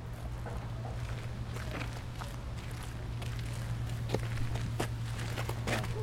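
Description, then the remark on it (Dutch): Steady footsteps walk along at an even pace toward a residential tower, over a continuous low hum and outdoor background noise; no one speaks. “we lopen nu naar de woontoren toe.”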